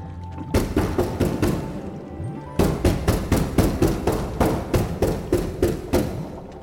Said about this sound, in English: I tried pounding on the window, laying into it with the pommel of my Balik.